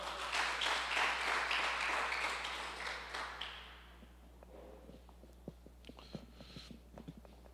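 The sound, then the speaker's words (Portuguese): A standing audience applauds the Lord in a dense, steady wash of clapping for a few seconds, then it thins out to scattered individual claps and small knocks as the room settles. “Dá um aplauso ao Senhor aí, fique de pé.”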